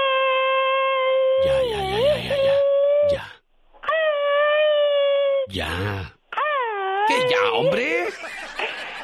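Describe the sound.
A person imitating coyote howls, three long, loud, wavering wails that rise and fall in pitch, separated by brief breaks, with the last one breaking into rougher yelps.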